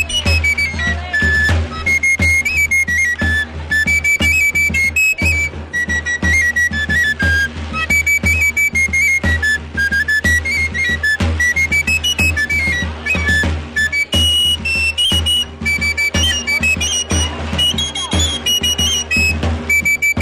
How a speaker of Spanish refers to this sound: vamos a escuchar mientras, mientras empieza el acto de nuevo Antonio de Huelva y a su equipo de tamboriles.